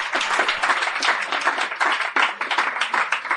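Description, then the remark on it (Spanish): A crowd applauds steadily, many hands clapping in a dense, continuous patter that stays fairly loud throughout, with no voices standing out. “Un aplauso, por favor.”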